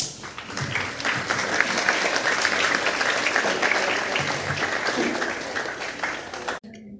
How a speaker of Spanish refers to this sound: A continuación, y con un aplauso de bienvenida de nuevo, Vamos a escuchar las palabras del señor personero municipal,